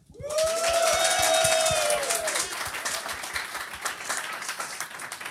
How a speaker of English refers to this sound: All right, I'm going to let the audience decide who lost the most points. Please applaud for who you feel lost the most points.